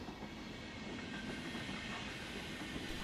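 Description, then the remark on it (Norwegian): A train travelling to Oslo from Stockholm rolls steadily along the rails with a continuous rumble, faint rhythmic clickety-clack and a broad airy hiss, evenly loud throughout with no voices. “Men han hadde tro på bedre muligheter i Norge, så han tok toget til Oslo.”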